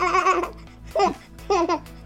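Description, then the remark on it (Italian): A baby laughs and babbles in three short bursts, clear, with brief pauses between the high, bubbly vocal outbursts. “Oh, è un bambino.”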